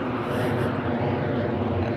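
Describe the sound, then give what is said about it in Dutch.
A steady, broad roar of an airplane passing overhead, a continuous rumbling drone that holds an even loudness throughout with no voices. “Eh, hoewel, er ehm, komt een vliegtuig over.”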